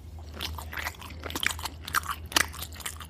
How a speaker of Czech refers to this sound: A jak se vracela, najednou uslyšela zvláštní zvuky z ledničky. Přiložila ucho, uslyšela mlaskání.